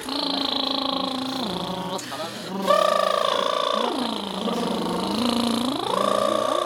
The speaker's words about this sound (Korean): 그 다음에 입술을 풀어볼게요. 입술을 이렇게 부셔보세요.